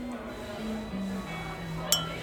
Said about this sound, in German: Dein Glas stößt mit einem Klirren gegen meins. Auf uns. Ja, auf uns.